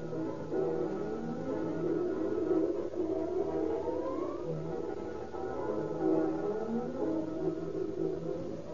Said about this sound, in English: fire engines, chemical cars, and long, sleek ladder wagons fly screaming through the deserted streets.